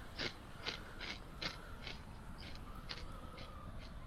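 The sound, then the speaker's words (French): Crunching of potato chips, a steady series of about nine dry, crackly bites spaced roughly half a second apart, fairly quiet with no talking. “On entend genre juste des chips.”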